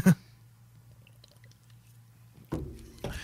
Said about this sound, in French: Oh yeah, ça mérite une gorgée, man.